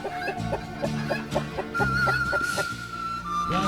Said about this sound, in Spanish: No sabía que en el medio del mar había gallinas. Raro este lugar donde me encuentro.